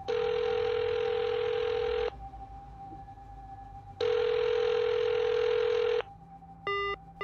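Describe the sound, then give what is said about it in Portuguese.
A telephone ringback tone sounds twice in long two-second bursts separated by a pause as a call to a home goes unanswered, followed by a brief electronic beep at the end. “Chamou, chamou, ninguém atendeu.”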